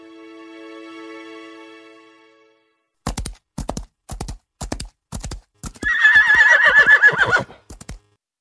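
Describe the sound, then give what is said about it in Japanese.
A steady humming tone fades out, then horse hooves clip-clop in sharp, uneven beats as horses are raced, broken by a loud, quavering neigh that slides downward in pitch before the hoofbeats return. “ちえ、どんな馬を走らせても、一番乗りは又太郎か。”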